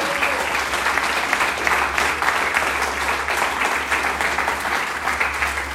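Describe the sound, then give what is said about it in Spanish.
An audience applauds God loudly and steadily, a dense wash of many hands clapping at once, sustained for several seconds without any talking over it. “¿Alguien le aplaude fuerte a Dios de amor?”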